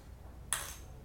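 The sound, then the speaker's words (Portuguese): A single crisp click of a guitar pick, bright, with a short metallic ring that fades within a fraction of a second over a faint low hum. “Isso aqui é o barulho da palheta, ó, ó.”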